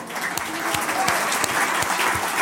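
An audience applauds steadily, a dense wash of many hands clapping with a few sharper individual claps standing out, sustained at an even loudness throughout.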